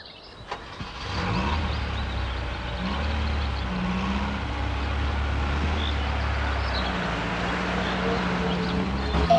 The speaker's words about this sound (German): während ich das Auto aus der Garage hole